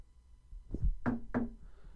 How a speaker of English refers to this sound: Well, there might be the janitor through that wall, but are you there, janitor? Knock twice if you're there.